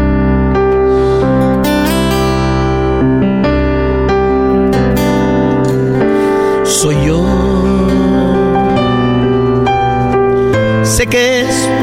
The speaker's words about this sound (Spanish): pero primero una rolita. vamos a escuchar.